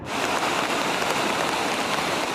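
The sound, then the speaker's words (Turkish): Heavy rain pours down in Hatay, Turkey, where the rains made stream beds overflow: a steady, dense, loud hiss with countless drops drumming on surfaces and no voices. “Hatay'da şiddetli yağışlar dere yataklarının taşmasına sebep oldu.”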